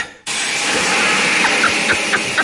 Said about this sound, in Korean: 때마침 화장실 안에서 갑자기 샤워기 물소리가 들리더군요. 귀여워. 밖에 상황을 예의주시하던 아내가 얼른 샤워기를 튼 거였죠.